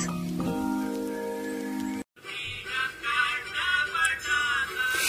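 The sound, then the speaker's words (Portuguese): A short burst of steady tonal music cuts off abruptly, then a dense, hissing patter of rain takes over, swelling and easing in continuous waves with no voices. “A chuva em gotas glaciais chora monotonamente.”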